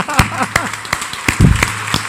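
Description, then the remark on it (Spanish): Scattered, sharp claps ring out at an uneven pace, like a small crowd applauding loosely, with voices murmuring and chattering underneath. “La verdad, a mí me gustaría, eh, pues cuando me hagas un aplauso, ¿no?”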